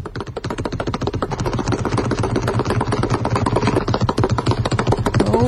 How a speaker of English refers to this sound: But to some extent, when you become at one with your craft, like Pete Maravich does with a basketball, listen to the rhythm of him dribbling a basketball. It sounds like a drum in … band.